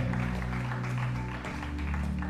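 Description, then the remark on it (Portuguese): An audience applauds the Lord in a steady, dense wash of clapping that lasts the whole moment, with sustained low musical tones playing underneath. “Você pode dar uma aplauso ao Senhor.”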